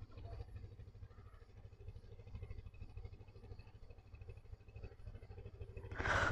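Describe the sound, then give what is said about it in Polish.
A motorboat engine drones steadily with a low, rumbling hum as the boat passes by, growing noticeably louder and rougher in the final second. No voices are heard. “To łódka, płynie łódka.”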